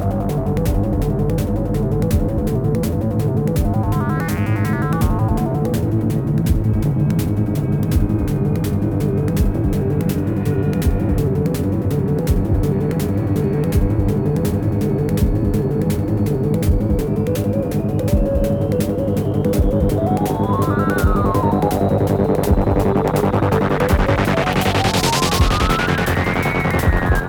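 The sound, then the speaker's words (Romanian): A fast, relentless synthesizer sequence of eight notes loops continuously, with swooping filtered sweeps and whooshing effects rising and falling over the pulsing pattern, loud and steady with no voices. “introducerea secvenței de 8 note repetate, cu mai multe voci și efecte sonore deasupra, face ca piesa să se intensifice mereu și mereu și mereu, până când se prăbușește în cele din urmă la sfârșit.”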